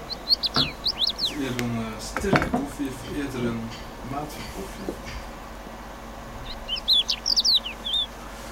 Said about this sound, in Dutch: Dus het eerste dat mij opkwam toen ik die leeuwerik bezig hoorde.